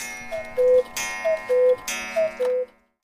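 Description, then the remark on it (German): A cuckoo clock calls three times, each call made by two pipe tones like a church organ, a clear high note dropping to a lower one, with sharp clattering clicks between the calls. No one speaks. “kam dann so eben über Umwege mehr zufällig auf die Kuckucksuhr, weil man eben diesen Kuckucksruf mit zwei Pfeifentönen wie in einer Kirche, eben bei einer Kirchenorgel, viel einfacher erzeugen kann als ein Hahnenschrei.”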